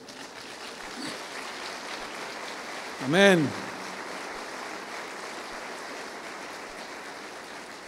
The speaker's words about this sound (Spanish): Eso merece un aplauso para Dios.